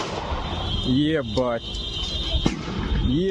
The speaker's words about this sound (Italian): Quello che sentite adesso invece è il rumore delle esplosioni secondarie della Toyota di Daria Dughina, oltre alle sirene dell'ambulanza e della polizia.